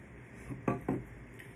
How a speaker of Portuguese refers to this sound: Toma mais uma água, peraí, antes do próximo.